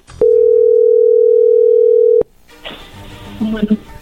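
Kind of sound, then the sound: signal or alarm, telephone dial tone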